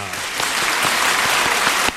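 An audience breaks into steady applause, a dense, crackling wash of many hands clapping at a fairly loud, even level, with a few sharper individual claps standing out.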